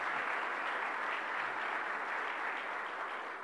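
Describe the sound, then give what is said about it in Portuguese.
A church audience applauds to welcome a woman after a prayer of blessing, a dense, steady wash of many hands clapping together with no gaps, holding a constant level for several seconds before easing slightly at the end. “Vamos dar um aplauso, dando boas-vindas a ela.”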